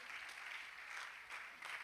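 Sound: audience clapping hands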